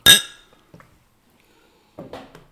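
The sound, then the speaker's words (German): Beer glasses of pale ale clink together sharply in a bright, ringing toast, the tone fading quickly, followed by a few quieter knocks and light rustling handling sounds. “Äh, Prost.”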